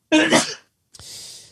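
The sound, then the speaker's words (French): A person sneezes once, loudly: a breathy, noisy build-up, a brief pause, then a sharp explosive burst trailing off into a hiss. No talking. “Ouais, euh, à tes souhaits.”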